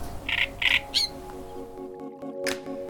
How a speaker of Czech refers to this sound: že tady v zimě těch ptáků je opravdu, opravdu hodně.